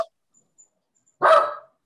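A single sharp bark from JJ, the speaker's dog, rings out after a moment of near silence, loud, with a short harsh burst that quickly fades.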